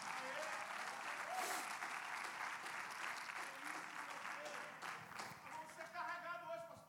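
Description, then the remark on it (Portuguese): Sustained applause from an audience, a dense wash of many hands clapping steadily for several seconds, with a few raised voices and cheers rising through it before it begins to taper. “Aplauda mais forte, senão desanima aqui.”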